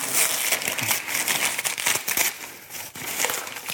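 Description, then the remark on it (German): Paper is torn open and crumpled as a gift package containing a Venus figurine is unwrapped: a steady, fairly loud stretch of crinkling and rustling with sharp little rips and crackles scattered through it, with no voices. “Ich reiße es auf, ne?”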